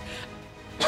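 A single sharp, loud sneeze bursts out at the end, following a brief breathy lead-in and a moment of near quiet.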